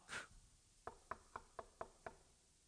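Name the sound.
knocking on a door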